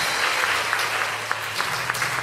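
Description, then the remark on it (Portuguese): A steady round of applause from many hands, dense crackling claps filling the whole stretch at an even, fairly loud level with no voices standing out. “Vai dar salva de palmas se você achar bom isso.”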